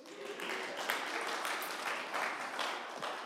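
Steady crowd applause fills the whole stretch, many hands clapping at once in a dense, even wash of sound with no voices on top.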